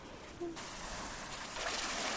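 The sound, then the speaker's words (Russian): Waves roll onto a sandy beach of soft, sparkling golden sand at Sachon Beach, in a steady rushing wash that swells after a brief quieter moment and keeps hissing continuously to the end. “Слышите шум накатывающих на берег волн?”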